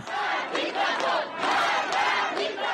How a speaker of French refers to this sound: Dans la rue, la foule scande des slogans anti-régime ou encore mort au dictateur, référence à l'ayatollah Ramenei, le guide suprême.